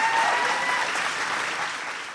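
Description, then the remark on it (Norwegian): A crowd applauds Sweden's prime minister at the AUF summer camp on Utøya, steady dense clapping forming a loud, sustained wash of noise that eases slightly toward the end, with no voices standing out. “AUF-erne sparte ikke på applausen da Sveriges statsminister gjesta sommerleiren på Utøya i helga.”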